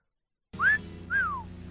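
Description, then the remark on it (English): A person whistles the short, bright Irish Spring deodorant soap jingle: two rising-and-falling melodic phrases followed by the start of a third, clear, over a low steady background hum. “That's Irish Spring deodorant soap. Gets you fresh and clean as a whistle.”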